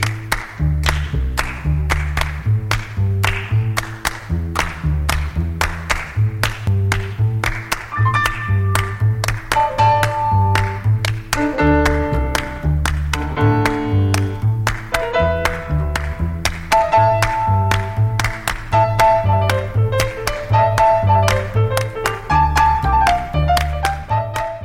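An instrumental jazz piece in 7/4 time, driven by crisp, steady handclaps and a bouncing bass figure, with bright plucked or keyboard notes joining partway through. No voices.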